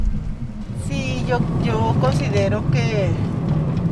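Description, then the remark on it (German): Steady low rumble of a car's interior while driving in Ciudad Juarez, a constant droning hum throughout, with a person talking over it. “…, die Direktorin des Fraueninstituts von Ciudad Juarez, ist im Auto unterwegs.”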